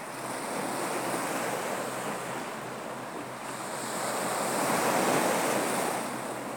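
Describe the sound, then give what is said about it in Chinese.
Steady ocean surf washes onto the shore, a broad continuous hiss that swells and recedes gently, rising toward a fuller rush near the end, with a light wind-like roar underneath and no voices. “轻轻的放下它，回到你的听觉，跟这个海浪的声音在一起”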